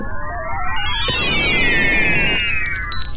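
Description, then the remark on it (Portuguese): A wristwatch rings with a loud electronic alarm tone that sweeps upward and then slowly falls, warbling over a dense wash of noise, with a few sharp beeps near the end. “É esse meu relógio?”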